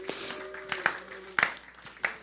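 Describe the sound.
Scattered audience applause for a woman called up to the front: a handful of sharp, irregular claps rather than a full ovation, over a low murmur of voices and a faint steady hum.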